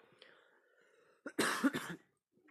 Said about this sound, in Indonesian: oh iya kali ini aku juga lagi sakit nih lagi batuk ya karena tadi aku bilang aku kurang menjaga kesehatan